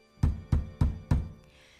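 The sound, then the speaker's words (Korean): Monks knock four dull, evenly spaced times on the closed door of a village house, each a low, heavy thud that fades quickly, with no voices present. “스님들은 이 집 저집 닫힌 문을 두드려봤지만 문을 열어주는 사람은 아무도 없었어요.”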